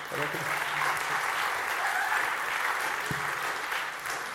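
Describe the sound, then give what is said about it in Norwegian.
Steady applause from an audience at a Christian talk, a dense wash of many hands clapping at an even level throughout, with a few faint voices underneath. “En liten applaus der.”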